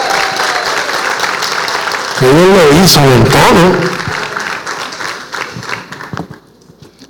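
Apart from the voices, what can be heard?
audience applause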